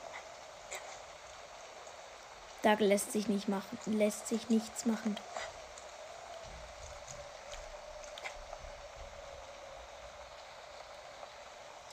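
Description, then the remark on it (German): Steady, even rain in a video game hisses throughout at a moderate level, a constant wash of falling drops. A man speaks briefly over it near the start, then the rain continues alone. “Aber nein, es regnet.”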